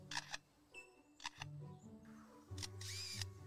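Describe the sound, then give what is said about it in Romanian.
A bird imitates a camera shutter, producing three crisp mechanical click-and-whir bursts, the last one longer, with low tonal hums and chirpy sounds underneath. No one speaks. “A camera.”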